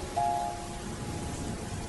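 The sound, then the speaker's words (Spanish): Steady rain falls in a soft, even hiss with no voices. A faint brief tone rises near the start, then fades back into the constant wash of rain. “Ves un lugar en el que puedes escapar de la lluvia y el viento.”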